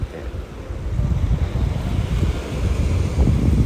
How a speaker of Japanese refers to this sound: えっと、今、海に来ていて、えっと、雨が止んでいる間にと思って来たんですが、すごいことになっていて